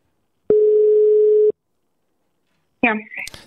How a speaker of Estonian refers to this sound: tegelikult tahaks ja. telefonikõne teha. vaatame, kas äh, telefonile vastatakse ka. kui ei vasta, siis oleks natuke naljakas.